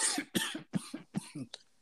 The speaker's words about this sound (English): No, nigga, I'm just coughing.